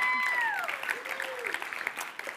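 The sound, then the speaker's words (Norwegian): An audience breaks into steady, dense applause that carries on throughout, with a single descending whoop sliding down in pitch near the start. “Og så kan vi andre gi deg en applaus.”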